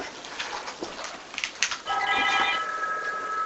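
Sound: telephone ringing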